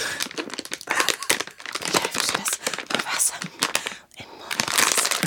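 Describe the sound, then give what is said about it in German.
Packaging being greedily, hastily torn open: a loud, continuous stretch of crinkling and crackling plastic with sharp ripping bursts, broken by a brief pause before more rustling tearing. “Also gut, äh, Fehler 1, gierig aufreißen funktioniert nicht.”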